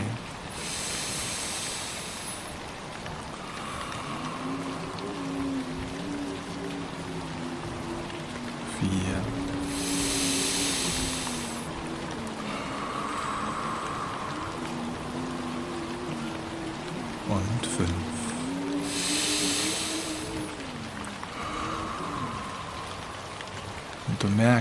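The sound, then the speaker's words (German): Steady rain and wind of a thunderstorm, a dense hiss of drops on a surface with periodic swells of brighter patter, in a guided meditation. Soft, low tonal sounds drift underneath the downpour. “merkst, wie der Wind und der Regen dich reinigen, wie Freiheit in deinem Inneren entsteht, wie dein Brustkopf freier und leichter wird, wie du befreit atmen kannst und wie der Regen langsam jetzt auch weniger wird, genauso wie der Wind.”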